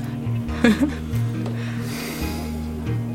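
A heavy snort bursts out early on, followed by loud, noisy breathing with a low droning hum underneath; there is no talking.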